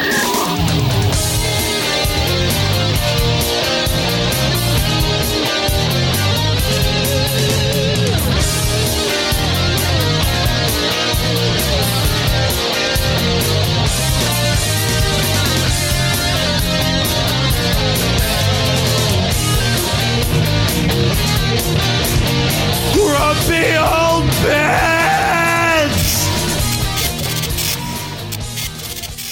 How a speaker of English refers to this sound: Ah, we don't mention it enough the guitar stylings and screaming stylings